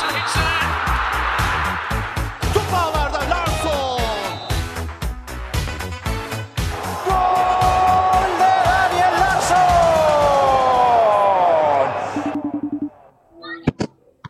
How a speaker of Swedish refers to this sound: Tror du att du på något sätt kan eh, ta dig bort från eh, de där barnskriken? Nej, det går faktiskt